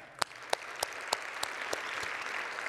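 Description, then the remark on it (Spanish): A church audience applauds, giving applause to the Lord for the worship group, a dense wash of steady clapping with a run of sharper, evenly spaced claps punching through about three times a second. No one speaks. “¿Qué tal si nosotros le damos un aplauso al Señor por el grupo de alabanza que también nos ha dado?”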